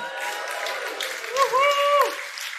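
An audience applauds steadily throughout, a dense wash of clapping, while a drawn-out cheer or whoop rises above it briefly in the middle.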